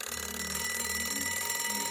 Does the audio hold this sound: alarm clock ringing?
yes